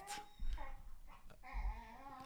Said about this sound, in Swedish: Hör ni att det läcker in eller? Ja, vi hör hundar.